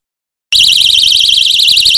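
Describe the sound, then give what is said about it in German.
A personal shrill alarm device kicks in abruptly after half a second of silence and holds a loud, rapidly warbling high-pitched shriek, harsh, with no voices. “Der Drillalarm hier mal im Live-Einsatz.”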